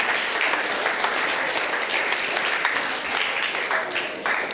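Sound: audience applause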